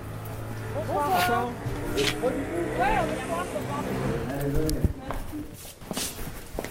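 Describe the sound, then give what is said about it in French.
Footsteps cross the hard-floored inner courtyard of a neighbouring building at an unhurried pace, entering a restaurant by a small back passage, a handful of distinct steps with a slight echo, while indistinct voices murmur. “Hein, Exactement, là ce que vous entendez vraiment, donc on, passe par euh, cette cour intérieure de l'immeuble d'à côté.”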